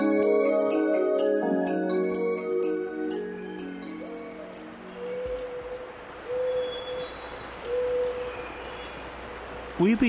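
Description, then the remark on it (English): After a burst of music fades out, a few soft, evenly spaced owl hoots sound against a hushed, hissing redwood forest backdrop in California, with faint bird chirps higher up. “Along the way, you'll hear a northern pygmy owl, a hermit thrush, a varied thrush, a Steller's jay, and of course, a spotted owl, all served up on a bed of redwood forest ambience.”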